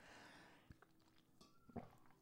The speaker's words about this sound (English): so let me hang on, let me take a sip of tea here.